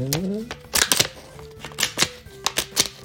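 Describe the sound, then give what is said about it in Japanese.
A staple-free stapler binds paper without staples several times, each press a crisp crunching snap that comes in quick pairs, with a brief voice sound at the very start. Each press punches an arrow-shaped cut through the paper. “気持ちいいんだものこれこれすごくない針がないのにさ閉じられるホチキス”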